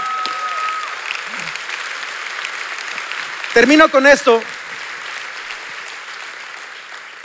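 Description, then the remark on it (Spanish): An audience loudly applauds the Lord, a dense, steady wash of clapping that continues throughout, with a man's voice speaking briefly over it partway through. “Vamos, dale un fuerte aplauso al Señor.”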